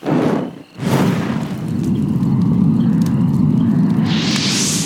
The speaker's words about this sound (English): It exploded on impact and lit everything on fire.